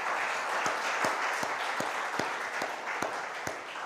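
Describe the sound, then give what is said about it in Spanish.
An audience applauds God loudly in a dense, continuous wash of clapping, with a steady rhythmic clap cutting through roughly twice a second. No one speaks over it. “Denle un aplauso a Dios, por favor. Fuerte, fuerte.”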